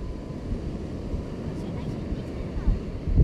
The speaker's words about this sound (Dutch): Dat is zo'n kalmerend geluid. Die zee, die oerkracht van het water. Levenskracht.